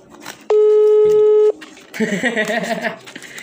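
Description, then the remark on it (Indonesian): A steady electronic telephone tone sounds for about one second while a call is being dialed out, loud and clean, with faint background noise before it and voices talking right after. “Memanggil kayak nih nah berdering”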